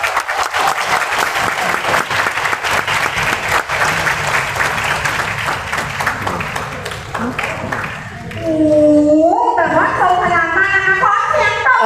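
A crowd applauds with dense, steady clapping for several seconds, then the clapping fades as upbeat music with a melodic line takes over.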